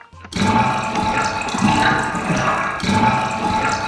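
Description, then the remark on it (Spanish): Steady rushing water pours into a sewer drain, a dense, continuous gurgling flow that starts abruptly and keeps a constant, fairly loud level throughout, with no voices. “Una alcantarilla.”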